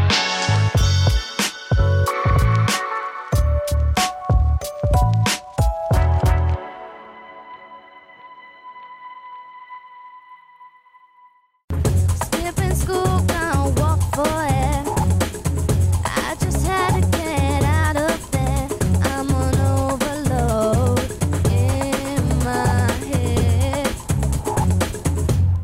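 Punchy rhythmic hits with bright tonal chords ring out and fade into silence, then a full, loud pop song by a girl group kicks in with steady beat and melodic vocals.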